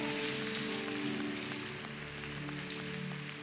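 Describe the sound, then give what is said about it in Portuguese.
An audience applauds Jesus loudly, a dense, steady wash of clapping that holds for several seconds, with sustained musical tones running underneath and no voices standing out. “Se você crê nisso, aplauda Jesus o mais alto que você puder.”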